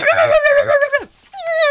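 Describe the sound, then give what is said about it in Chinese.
A little black dog whimpers in a long, high, wavering whine that slides downward, falls silent briefly, then starts another sustained whine. No separate sharp barks stand out. “怎么走到一半，突然听到汪汪汪啊！”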